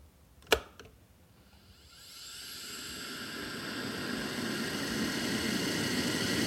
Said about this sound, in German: Wasserkocher. Absolut richtig. Und da war jetzt noch das Schnapperl, wenn es fertig ist. Ah, ja. Also es war ein mhm. Wasserkocher, wo nur mehr ein Lackerl drinnen ist